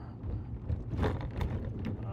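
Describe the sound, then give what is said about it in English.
Loose bow fishing bricks clunk and rattle a few times inside a moving truck, sharp knocks breaking through a steady low engine and road rumble, with muffled voices faintly underneath. “I keep thinking something's wrong with the truck, but it's those bow fishing bricks.”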